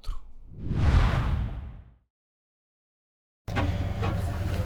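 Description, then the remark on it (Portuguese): Ice grinds and knocks against a ship's hull beside the bow cabin, recorded on 12 January 2024, in a deep, rumbling surge that fades into silence, then returns as a steady rough wash with faint knocks. “Acho que dá para ouvir um pouco do gelo batendo aqui no costado do camarote de proa.”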